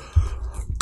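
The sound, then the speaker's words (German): A short, loud sneeze: a low, muffled catch of breath followed by a sharp, hissing burst at the end, with no talking. “Gesundheit.”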